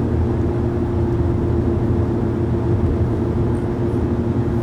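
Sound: car background noise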